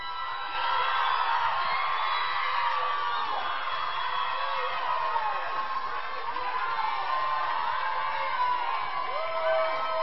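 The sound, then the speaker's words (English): A crowd of women in an audience, standing up, yelling, whooping and cheering all at once, a loud continuous roar of high-pitched voices that starts abruptly and holds steady for about ten seconds. “been and yelled out loud since your team scored a touchdown? All right, women, stand up.”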